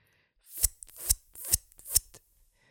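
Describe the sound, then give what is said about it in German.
A voice imitates the retro wind gust sound effect from the first-generation Pokémon game with four sharp, breathy hissing bursts in an even rhythm, moderately loud, with no other sounds around them. “Das war bei einem anderen Spiel. Pokémon? Ja, es war der Windstoß.”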